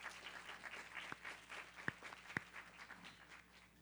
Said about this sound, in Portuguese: vamos aplaudir a presença dele.